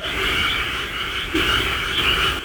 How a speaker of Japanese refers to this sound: なんか、聞こえてますかね、カエルの。